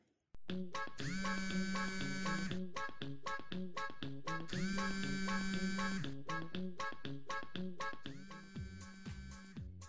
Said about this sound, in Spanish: Son las 10 de la mañana, cuando la alarma de André suena.